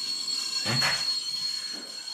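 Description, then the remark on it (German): A high, steady metallic screech of train wheels squealing on rails as a train arrives, with a brief rumbling burst of the train passing by, then the squeal continuing alone. “der reist immer mit dem Zug an.”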